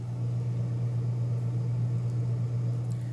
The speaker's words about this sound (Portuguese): Primeira vez que eu tô acabando esse episódio na frente da geladeira aberta. Ó, o barulho de freezer.